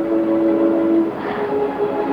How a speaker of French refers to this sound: Mais ben, sais-tu ce que j'entendais Le métro. Tu te rends compte Le métro.